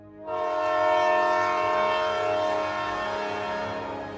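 A train horn blows in one long, loud, sustained chord for about four seconds, with the low rumble of a passing train beneath it and no voices.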